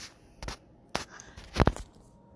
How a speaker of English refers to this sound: I also just heard the other notification, and it was a different kind. It was a piece of paper, and I'm like, I don't even know where that came from. Kind of, what kind of notification was that?